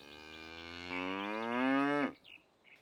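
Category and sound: animal, cow mooing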